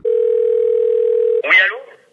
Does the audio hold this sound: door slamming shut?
no